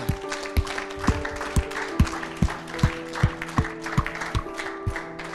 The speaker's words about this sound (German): Könnt die Augen gerne wieder öffnen und lass uns der Person einfach einen fetten Applaus geben, was die beste Entscheidung, die du je in deinem Leben treffen kannst.